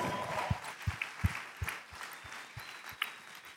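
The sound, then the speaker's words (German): Audience applause for the worship band, with a steady, rhythmic beat of claps about two or three per second over a bed of scattered clapping. The sound is moderately loud and no one speaks. “Let's give big applause to the worship band.”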